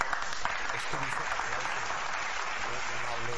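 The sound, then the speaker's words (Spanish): An applause sound effect: a burst of crowd applause, dense and steady clapping from many hands filling the whole stretch, with faint voices murmuring underneath, played to welcome a guest. “Híjole, ¿pongo aplausos?”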